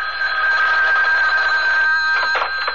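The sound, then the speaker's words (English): A telephone bell rings continuously, a bright, steady metallic trill, loud, with no voices over it. “I'll have to get the phone.”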